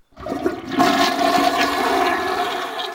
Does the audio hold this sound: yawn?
no